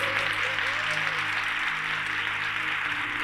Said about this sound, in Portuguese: Aqueles que creem, aplaudam ao Senhor.